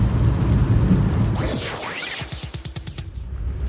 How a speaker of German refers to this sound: Wisst ihr, was mich echt bekloppt macht? Wenn dieser beschissene Regen sich nicht entscheiden kann, ob er jetzt in dicken, fetten, großen Tropfen runtertropfen soll oder in kleinen, zarten, dünnen Tropfen. Das ist total zum Kotzen.